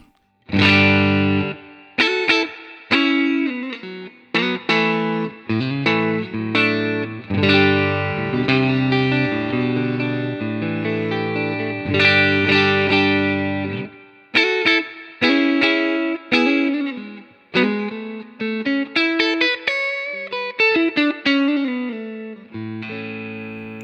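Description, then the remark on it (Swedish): A 50B broadcast-variant electric guitar played on its neck pickup, settings unchanged from the other pickups, giving a warm, round, slightly overdriven tone through a melodic run of single notes and chords with short pauses between phrases. “Och då halsmicken.”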